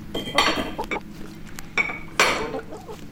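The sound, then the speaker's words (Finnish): Dishes and cutlery clink and clatter as a family sets a snack out on a table, several bright, sharp bursts of rattling tableware spaced irregularly over a low background hum, with a faint hint of clucking hens. “Kun kanat ja kaniini on ruokittu, perhe alkaa laittaa välipalaa pöytään.”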